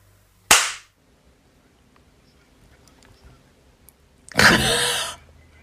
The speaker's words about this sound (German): Ähm, machen wir trotzdem Klatschen einmal?